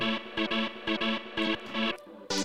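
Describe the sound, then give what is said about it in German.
A looping music fragment stutters and repeats in choppy, rhythmic bursts, time-sliced and retriggered by the alter.audio Timetosser live effect while a pattern is held down, with abrupt cuts between segments and a bright burst at the end. “Der alter.audio Timetosser ist ein Live-Tool, mit dem sich anliegendes Audiomaterial in der Zeit verändern lässt.”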